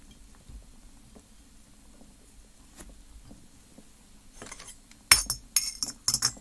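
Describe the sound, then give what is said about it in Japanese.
After a few seconds of quiet, low bubbling hum, a glass coffee siphon heated by an alcohol lamp, with brewed coffee draining down from the top, gives several sharp, bright clinks in quick succession, ringing glass-on-glass knocks with no talking. “コーヒー入れながら録音テスト”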